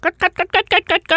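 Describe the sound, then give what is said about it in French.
A woman imitates a hen clucking with seven quick, evenly spaced voiced clucks in a steady rhythm, fairly loud. “J'aimerais ça pouvoir imiter le bruit d'une poule, mais je suis vraiment très, très mauvaise.”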